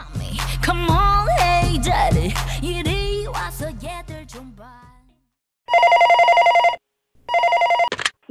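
A telephone rings twice in steady electronic bursts, loud, after a stretch of music with tones and melodic swoops fades out; the ring opens a radio segment on how to answer a listener ratings survey phone call.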